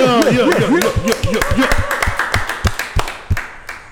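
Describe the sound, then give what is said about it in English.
Steady, rhythmic hand clapping at 804 RVA in a quick regular beat, loud and sharp, with excited voices whooping over it during the first half before the claps continue on their own. “Clap it up.”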